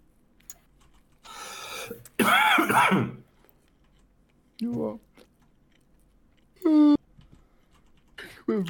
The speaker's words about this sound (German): Ich hasse trockenen Husten.